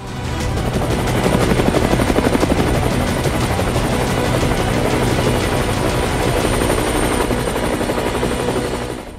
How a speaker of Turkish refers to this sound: Savunmadaki Türkler programının bu haftaki konuğu T-129 Atak helikopteri